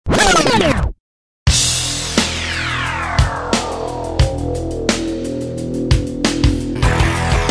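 A loud, sudden explosion bursts in after a brief silence, its roar trailing off in a falling whine, followed by a rapid series of sharper bangs and thumps.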